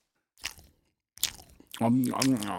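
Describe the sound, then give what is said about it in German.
Two crunchy bites into a burger with wet chewing noises, loud, followed by a voice talking over the end of the chewing. “jetzt leg diesen verdammten Burger da weg.”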